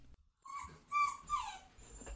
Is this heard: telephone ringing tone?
no